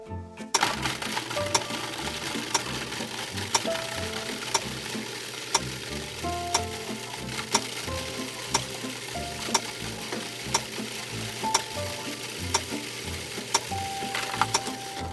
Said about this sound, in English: Turn on the processor and process this combination until the apricots are very finely ground, about 15 seconds. It might take a little bit longer in a blender.